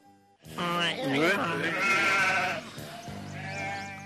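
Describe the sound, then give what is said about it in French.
Sheep in an anthrax vaccination trial bleat loudly: a long, quavering cry lasting a couple of seconds, then a shorter, steadier bleat after a brief pause, with no talking. “Ces moutons vont mourir du charbon et ceux-là survivront.”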